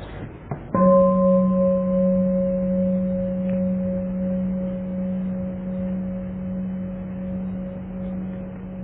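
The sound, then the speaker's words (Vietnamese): A single meditation bell is struck once, rung for listeners to close their eyes and relax, then its deep, steady tone rings on and slowly fades over several seconds, sounding alone with a faint room hum beneath it. “bây giờ chúng ta nghe một tiếng chuông nhắm mắt lại thả lỏng cho khỏe.”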